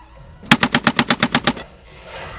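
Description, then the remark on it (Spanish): A rapid burst of about ten loud pistol shots fired in quick, even succession inside a cinema auditorium while a film plays, lasting roughly a second, followed by a faint lingering hiss. No one speaks. “Me di cuenta que las luces que estaba viendo eran balas saliendo de una pistola.”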